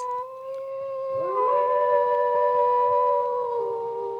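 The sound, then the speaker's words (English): Several gray wolves howl together, long sustained tones overlapping into a chorus that swells and holds steady, carrying clearly with no voices present. “In the far northern mountains of Idaho's Panhandle, are found vestiges of grizzly bear, woodland caribou, and gray wolf.”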